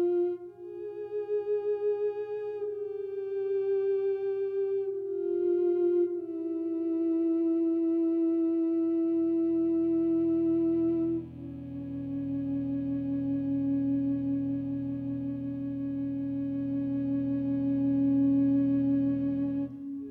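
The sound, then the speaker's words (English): Ondes Martenot music: a sustained, singing electronic tone with a slight glide between held notes, later joined by a low, rich drone that swells beneath it. No voices. “Olivier Messiaen, in particular, wrote extensively for the Ondes Martenot, works that are still regularly performed.”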